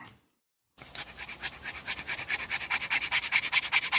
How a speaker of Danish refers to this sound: En fransk bulldog. Den her franske bulldog, den øh, kæmper desperat for at få vejret efter en kort gåtur.